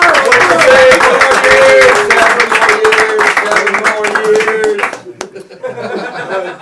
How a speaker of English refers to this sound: Big round of applause.